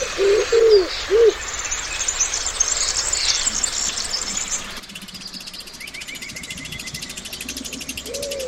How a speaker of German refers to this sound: Ich kann die Geräusche des Waldes hören.